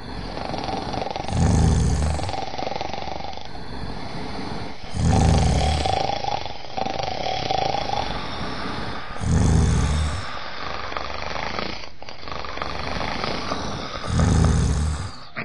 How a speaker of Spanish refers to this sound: Enseguida, el gigante y los soldados se pusieron a roncar.